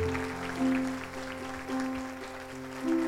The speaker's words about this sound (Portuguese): Aplauda o Senhor por isso, amém?